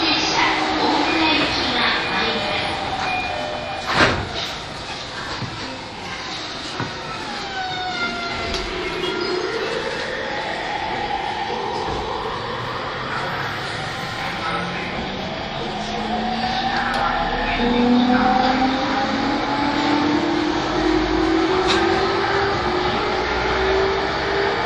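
An E231 series electric commuter train on the Yamanote Line outer loop in Tokyo, running from Tokyo Station toward Kanda. Its motors whine in gliding tones that climb steadily in pitch over a constant rattling rumble of wheels and track, with a brief clank partway through.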